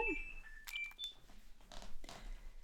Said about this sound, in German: ja, jetzt klingelt bei uns auch mal das Telefon.